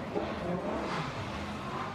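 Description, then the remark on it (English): A car engine roars steadily for a couple of seconds, loud, with a throaty rumble and a slight swell in the middle like a brief rev. “I might need you to rev an engine”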